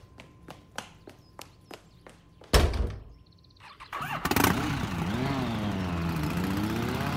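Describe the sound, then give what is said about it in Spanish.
Footsteps walk up, then a heavy thunk, a few seconds of quiet fiddling, and a motorcycle engine kicks to life, revving up and settling into a steady, fluctuating rumble. “Me llevo la moto de Micho.”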